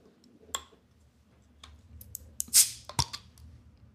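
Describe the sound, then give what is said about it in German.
A bottle of Obro strong beer is opened: a few small metallic clicks, a brief soft fizzing hiss as the cap releases, then one sharp click, with no talking. “zart das ist nicht so aufdringlich, der, das Geräusch.”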